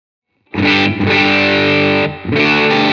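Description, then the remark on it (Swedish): Loud distorted electric guitar on the middle pickup at full, with gain, played as three sustained, buzzing chords with brief dips between them and no talking. “Mellanläget då helt enkelt. Det är mellanläget här.”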